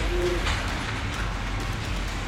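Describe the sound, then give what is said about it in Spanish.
A steady, loud rushing roar with deep low rumble as a magnetic train speeds at nearly 2,500 km/h through a tunnel linking underground cities, holding constant throughout with a brief faint whine near the start. “Básicamente son grandes ciudades subterráneas interconectadas por túneles en los que transitan trenes magnéticos que se desplazan a casi 2.500 kilómetros por hora.”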